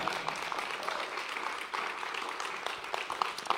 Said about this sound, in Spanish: alguien déle un aplauso al Espíritu Santo que está aquí en esta mañana.